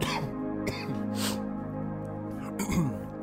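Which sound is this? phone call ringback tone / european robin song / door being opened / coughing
coughing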